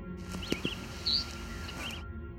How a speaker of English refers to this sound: That's the cedar waxwing, and if you didn't hear it, here it is again. Some birders report not being able to hear it. This is often due to high frequency hearing loss, which can come with damage to your hearing or with age.